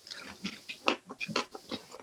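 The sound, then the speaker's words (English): Someone munching on a mushroom, olive and hot pepper combo pizza, a steady run of wet, crunchy chewing bites about four per second, with no talking. “munching on my, um, I'm munching on this combo.”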